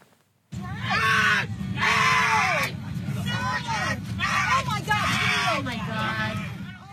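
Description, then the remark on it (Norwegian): Several people shout and cry out in agitated, overlapping bursts over a steady low engine drone, loud: passengers on United Airlines flight 3411 in Chicago yelling in protest, shouting "no, no, this is wrong" as a middle-aged man is forcibly removed from the overbooked flight and dragged down the aisle. “Sjokkerte medpassasjerer roper nei, nei, dette er galt mens en middelaldrende mann blir slept nedover midtgangen på Uniteds avgang 3411.”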